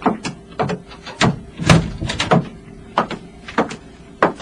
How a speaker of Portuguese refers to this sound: Sim, entre e feche a porta.